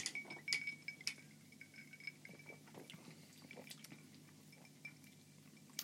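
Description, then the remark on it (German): Glasses of gin clink together twice in quick succession during a toast, leaving a bright ringing tone, followed by soft scattered clicks and faint liquid sounds. “Prost.”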